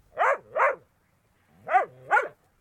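A dog barks four times in two quick pairs, loud, with a short silent pause between the pairs and no one speaking.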